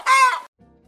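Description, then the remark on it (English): A single loud, harsh chicken squawk lasting under half a second, heard on its own, then a faint low rumble as it fades into near silence. “Occasionally, there will be chicken noises.”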